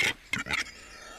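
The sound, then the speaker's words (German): A capercaillie calls with three short, raspy bursts in quick succession, the first and last the loudest, followed by a faint hiss of background noise. No one speaks. “Hier ist der Auerhahn.”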